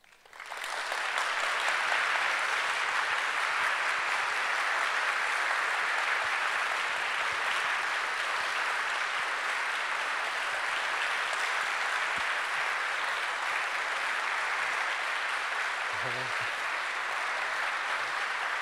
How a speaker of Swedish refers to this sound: Och nu har vi ett sånt här Kokkola under här att om vi applåderar riktigt hårt så kan vi se dem.